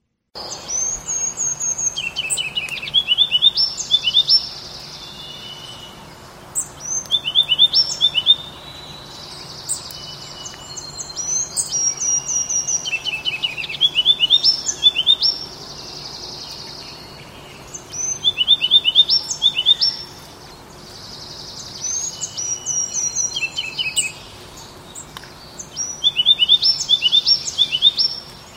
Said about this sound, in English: So that was a ruby crown kinglet. Uh, in the foreground there, there were some other birds kind of singing in the background. You might have noticed. Uh, the ruby crown kinglet is fairly consistent.